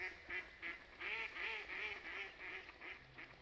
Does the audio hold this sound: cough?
no